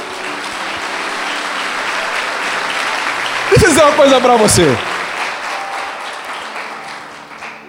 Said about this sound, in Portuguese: Cinco minutos depois, você pode aplaudir o Senhor pela vida